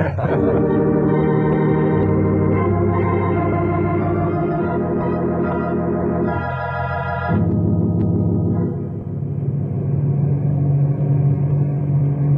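A small amphibious plane's engine drones loudly and steadily in flight, a deep harmonic hum whose pitch shifts slightly partway through, with no voices.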